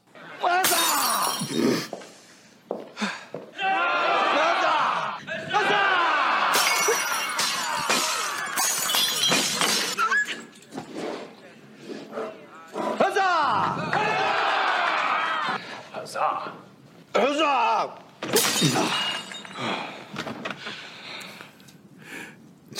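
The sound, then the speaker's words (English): Glass smashing repeatedly as Emperor Peter smashes his glass, loud bursts of shattering with bright crashing debris, interspersed with shouting voices and a lively crowd-like commotion throughout. “a, here's a clip and say Cesar and smash his glass.”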